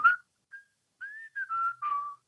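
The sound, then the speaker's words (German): A person whistles a short jingle melody, a handful of clear notes, some gliding and some held, with brief gaps between them and no talking. “Und pfeif mal schnell den, den Mikroton.”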